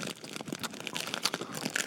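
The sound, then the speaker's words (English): A bag of Sour Patch Kids candy crinkles into a microphone, a steady run of sharp, papery rustles and crackles with no voices. “Here's my patch, my bag of Sour Patch Kids,”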